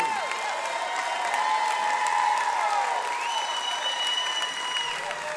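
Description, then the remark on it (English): A crowd applauds a band, clapping steadily and loudly in a dense unbroken wash of applause with sustained whistles and cheering tones rising and sliding above it throughout. “Hey, how about, how about a big round of applause for our good friends and one of our favorite bands”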